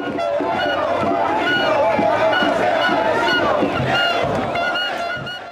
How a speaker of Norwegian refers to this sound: Ut kriminelle, roper folkemengden mens de marsjerer i gatene i Perus hovedstad Lima.